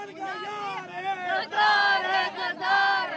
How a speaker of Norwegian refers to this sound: En stor gruppe kvinner roper slagord og bærer plakater med påskriften 'Angrepet på Malala er barbarisk', og 'Malala er et ikon for modighet'.